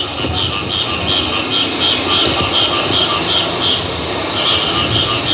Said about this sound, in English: Boy, doesn't that sound like the tropics? That's right in the middle of the city. You can hear an occasional car off in the distance.